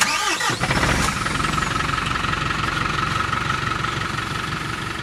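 The engine of a 14-metre-long truck cranks briefly for about a second, catches, then settles into a steady, loud diesel idle that rumbles on evenly with no voices.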